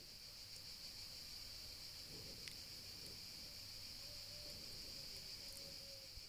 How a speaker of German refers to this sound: Die Hintergrundgeräusche, die du jetzt hören kannst, das Zirpen der Grillen, vielleicht auch den Gesang der Vögel, vielleicht auch ein leises Stimmengewirr.